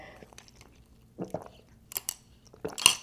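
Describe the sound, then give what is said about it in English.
A slurping sip of coffee with Nut Pod Creamer followed by a wet swallowing gulp, a few soft mouth and lip noises spread over a few seconds with no talking. “Okay, that's kind of gross gulp, but whatever.”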